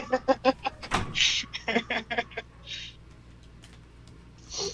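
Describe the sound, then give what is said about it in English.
Small dogs yap next door in rapid, high-pitched bursts, a quick run of barks followed by another flurry, somewhat muffled. “If there's like some dogs yapping next door, I don't I have no idea why.”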